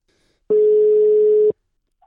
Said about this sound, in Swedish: Så att eh, jag har ett eh, telefonnummer här som jag tänker ja. vi ska ta och ringa. Ja. Så att, eh, ja men vi ringer nu.